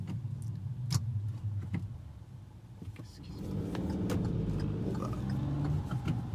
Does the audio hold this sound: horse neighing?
no